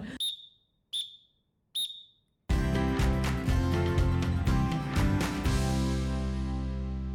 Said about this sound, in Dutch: Koen fluit af, denk ik, dus oh. we gaan hem afronden.